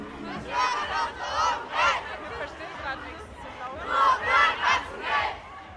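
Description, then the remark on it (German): A large crowd of protesting Fridays for Future students shouts and chants at the Gänsemarkt in Hamburg on 15 March, early in the morning in frosty cold. Voices swell into loud rhythmic bursts, then ease into a dense babble before rising again. “Trotz frostiger Kälte ist der Gänsemarkt schon morgens früh um 8 rappelvoll.”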